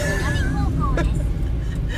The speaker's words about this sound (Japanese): あそうそうままだ車の中だからね